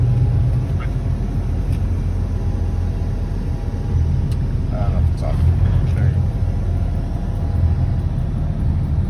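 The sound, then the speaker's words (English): A large Canadian convoy of trucks rumbles past across an overpass, leaving the Flying J, a loud, steady, deep engine drone that continues for the whole stretch, with a few faint higher squeals rising briefly midway. “So we've got a whole overpass of trucks leaving the Flying J.”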